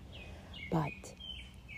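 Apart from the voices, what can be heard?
birds chirping outdoors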